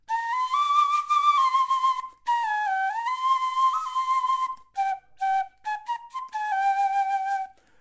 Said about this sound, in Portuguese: Pito doshi é a nossa cultura, é a nossa identidade é nossa identidade. Sem isso, ok? Sem esse apito, não há Chiloli. Isso é que identifica o, o Chiloli, o baile.